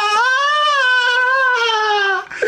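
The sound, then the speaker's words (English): A voice imitates a ghostly wail: one long, sustained, wavering vocal tone held steady at a fairly high pitch, loud throughout, then cutting off abruptly near the end. “Uh, so then I put on one of my house coats, which is just a floor length black robe, and then I float downstairs, all the while wailing, like, ah!”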